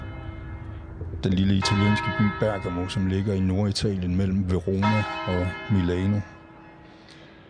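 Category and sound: ambience, church bells ringing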